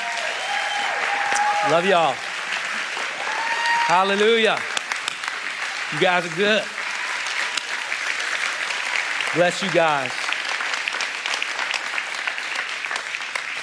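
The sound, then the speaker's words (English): Steady audience applause fills the whole stretch, a dense crackle of many hands clapping, while a man speaks a few short phrases over it. “Come on, can we give them a hand?”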